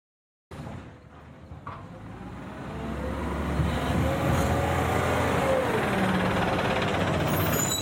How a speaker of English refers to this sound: How do they know it's Wednesday in our neighborhood? Every week it's the same thing. The garbage trucks come by early in the morning